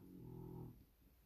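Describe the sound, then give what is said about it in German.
A single low, rumbling snore lasts about half a second, then fades into quiet room tone. It sounds soft, with no one talking. “Ich möchte mal einmal kurz sagen, wenn es Schnarchgeräusche im Hintergrund sind, dann ist es der kleine Hauself, der anscheinend von unserem Podcast ziemlich äh, gelangweilt ist.”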